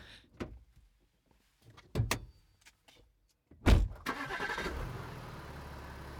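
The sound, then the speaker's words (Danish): A few clicks and thuds from inside a car, then a heavy door slams shut and the engine cranks and starts, settling into a steady idle, as the car is about to be driven to Aarhus, Denmark. “Og så bliver jeg ellers øh, sat i en bil tre dage senere og kørt til Aarhus.”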